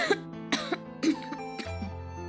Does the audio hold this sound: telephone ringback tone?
no